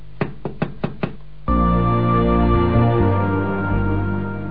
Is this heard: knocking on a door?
yes